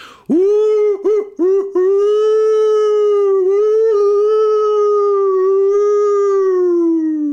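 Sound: imitated wolf howl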